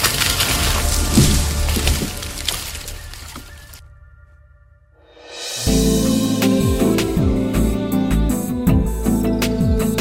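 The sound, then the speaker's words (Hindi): A tree branch loudly cracks and splinters apart in the opening seconds, the crunching break fading into a brief silence before music swells in. “Maggi हवा में तैरती हुई धीरे धीरे मोहित की ओर आई और आहिस्ते से दाल पर अपना वजन डाला और जैसे मोहित शादी का बोझ नहीं उठा सकता था वैसे ही वो डाल मोहित के पापों का बोझ नहीं उठा पाई और डाली टूट गई”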